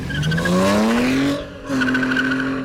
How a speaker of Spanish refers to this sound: Efectivamente, el carro se movió.